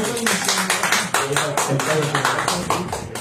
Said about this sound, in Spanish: Un fuerte aplauso y nos vemos pronto.